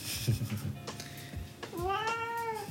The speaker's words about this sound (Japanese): すごいニヤニヤ言うとるラジオお聞きの皆さんこれが猫ですよ。